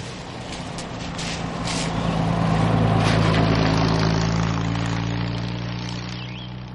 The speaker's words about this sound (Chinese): 一辆辆大卡车从盘山公路上轰隆隆的驶过，大地都微微在晃动了。